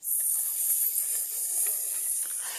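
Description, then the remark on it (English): A group of children makes a long, steady hissing sound imitating a snake, sustained and fairly loud for a couple of seconds with slight wavering, no words spoken. “So, what reptile did your group pick as the best? Snakes!”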